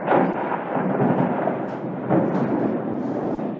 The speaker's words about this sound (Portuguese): É, é tá, tá caindo água, hein? Tá caindo tá água. Tá caindo o mundo aqui. Está caindo o mundo.